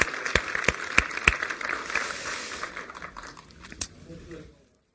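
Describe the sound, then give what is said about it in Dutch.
A crowd claps steadily to thank a visiting guest for coming, a dense crackle of many hands with a few sharper individual claps, then the applause thins and fades out near the end. Some voices mingle with the clapping. “We geven jou een dik applaus dat je hier was, oké?”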